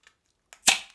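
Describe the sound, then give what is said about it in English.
A beer bottle being opened: a faint click and a short scrape, then a loud sharp pop with a brief fizzy hiss that quickly fades. No one speaks. “Ooh, that was a nice sound. The unbottling.”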